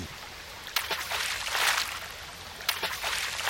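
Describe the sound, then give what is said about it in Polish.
Two sharp splashes, about two seconds apart, as pebbles are thrown into a babbling brook, breaking over a steady, hissing burble of running water. “Ty cisniesz przed co za so kamuszk do ryczki, a ja słucham z likom do wody ryczki.”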